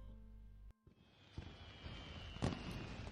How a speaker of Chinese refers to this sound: 哇，这是？ 哼哼，我去年录下来的烟花的声音。